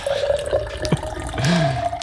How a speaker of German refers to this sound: hat eine Kanne dabei und gießt für die nüchternen Beteiligten reichlich verdünnten Wein